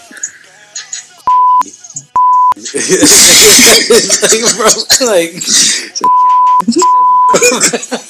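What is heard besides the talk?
censor bleep over speech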